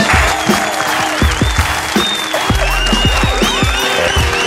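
Loud, sustained applause from an audience, a dense wash of many hands clapping steadily throughout, with a few scattered whistles riding above it and no speech.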